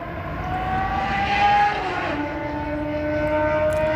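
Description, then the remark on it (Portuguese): A loud engine drone sweeps past, its pitch dropping midway as it goes by, a motorcycle roaring down the street, then a steady lower hum trails on. “A raiva que a gente tem da moto fazendo um barulho enorme passando na rua.”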